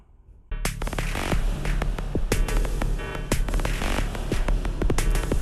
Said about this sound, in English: So now let's try this reverb out on an instrument like, I don't know, maybe a Korg Volca drum.